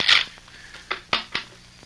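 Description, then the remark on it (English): A quick papery riffle of a deck of playing cards in a straight shuffle by a boy practicing, followed by three sharp snaps or taps as the deck is squared up, fairly crisp with no talking. “Look, Dad, how's this for a straight shuffle?”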